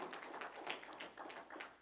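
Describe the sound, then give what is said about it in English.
A church audience clapping their hands in praise to the Lord, a dense, steady patter of many overlapping claps at a moderate level with no voices on top. “Come on, let's give the Lord another hand clap of praise.”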